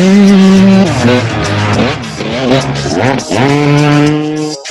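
A Turbo Spoke fitted to a bicycle makes it sound like a motorbike engine revving loudly, its pitch climbing and dropping several times in quick bursts before settling into a steady drone, with no voices.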